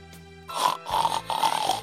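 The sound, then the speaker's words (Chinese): Three rough, nasal grunting bursts in a steady rhythm, a voice imitating a piglet's snorty oinks, each lasting about half a second with brief gaps between. “小猪。喜欢妈妈的吻，哼哼哼哼哼哼。”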